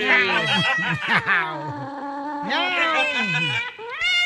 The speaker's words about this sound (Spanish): Estaban dos, este, dos gatos ya. Y ahí estaban. Miau, miau.